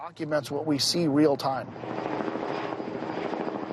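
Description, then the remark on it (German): A voice speaks briefly, then a steady, churning helicopter rotor drone takes over as helicopters circle over a hideout, a broad rumbling wash that holds at moderate loudness as if passing overhead. “Hubschrauber kreisen bereits über dem Versteck.”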